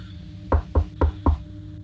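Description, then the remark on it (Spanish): Four firm knocks on a door, evenly spaced about a quarter second apart, fairly loud with a hollow low thump, over a faint steady background hum. “La puerta se escucha picar.”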